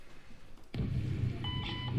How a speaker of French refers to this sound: C'est le bip du Baggio Ah oui, c'est le bip. Ouais. dit du Baggio là. Du... Ouais, bien vu. Là, tu bipes ça, tu sais que tu rentres dans le tram.